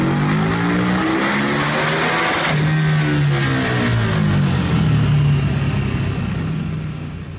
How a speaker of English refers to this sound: Now, see, the problem with that pull is I think he was in one gear too low because you hear how the dyno just shot up and then it hit the rev limiter.